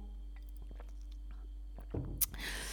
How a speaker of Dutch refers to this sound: ik moet echt weer even een slokje water drinken.